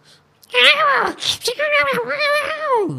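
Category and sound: vocal imitation, voice imitating cats fighting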